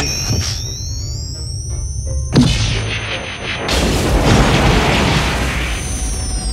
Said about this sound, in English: I can't believe you just blew up that wall.